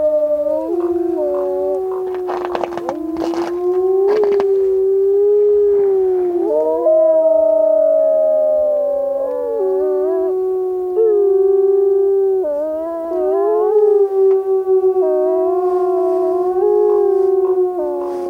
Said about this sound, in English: Wolves are fully protected and very vocal in Yellowstone National Park.